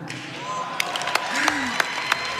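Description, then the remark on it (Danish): Scattered, fairly sharp hand claps from an audience at a Spanish book prize ceremony as the winner, La Bestia by Carmen Mola, is announced, spaced irregularly, with voices talking and murmuring underneath throughout. “En spansk bogpris blev uddelt forleden, og øh, der var, som ventede, øh, klapsalver, da vinderen blev annonceret.”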